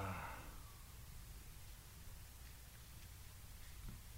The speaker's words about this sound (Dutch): Het is mooi, bij die stilte horen we alleen maar de wind hier over het ja, veld.